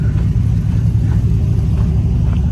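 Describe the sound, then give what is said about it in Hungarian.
A big pickup truck's engine rumbles with a deep, steady low drone, loud and constant throughout with faint higher whooshes riding on top. No one speaks. “hát is egy jó nagy kocsi. Én szeretem ezeket a trákokat pickup truck.”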